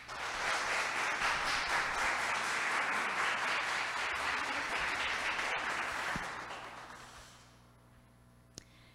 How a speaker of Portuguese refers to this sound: Então, meus irmãos, eu é, peço a vocês que recebam com carinho e com uma salva de palmas a nossa querida palestrante